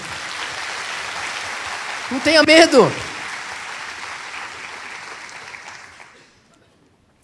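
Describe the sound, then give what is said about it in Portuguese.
An audience at Igreja Vida applauds God steadily, a dense crackling wash of many hands clapping that holds for about six seconds before fading out, with a man briefly speaking over it midway. “Você pode aplaudir ao nosso Deus por isso?”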